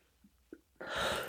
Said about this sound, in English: I don't know why I have a little cough right now.